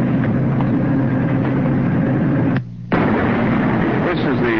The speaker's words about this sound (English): Now this is the way it sounds on the open hearth floor.